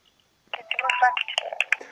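Telephone dialing and line tones of a call placed to an office in Barnaul, Russia, start abruptly after a brief silence, a dense burst of electronic beeps and tonal chirps filling the rest of the moment, fairly loud.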